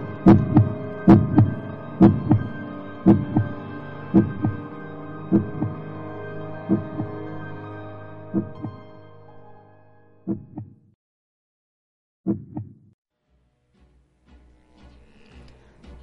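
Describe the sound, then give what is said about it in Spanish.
Heavy, booming heartbeat thuds in a steady double-beat rhythm, loud at first and gradually fading and slowing, ending with a few sparse beats and a low rumble. No voices. “siempre más alto. Miserables, exclamé. No disimuléis más tiempo. Confieso el crimen. Arrancad esas tablas. Ahí está, ahí está de su espantoso corazón.”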